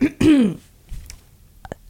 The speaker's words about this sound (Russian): Я откашляю все-таки, да.